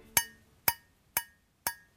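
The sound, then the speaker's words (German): Four evenly spaced metallic taps, about half a second apart, each a sharp click with a short, bright ringing tail, as a finger flicks against a metal flute. No voices. “Diesen Unterschied zwischen Gold, hell und Silber, dunkler, hört man sogar, wenn man nur mit dem Finger gegen die Flöte schnippt.”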